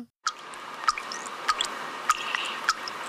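Tap water runs steadily into a plugged sink already holding a little water, a continuous splashing hiss with a distinct plop roughly every half second. No one speaks.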